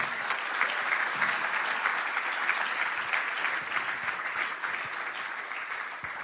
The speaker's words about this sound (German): Gib ihm mal einen kräftigen Applaus.